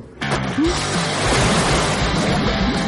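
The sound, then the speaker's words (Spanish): Water bubbles and churns in a steady, loud, continuous wash that kicks in abruptly after a brief quiet moment and keeps going without a break. “No, aún hace burbujas.”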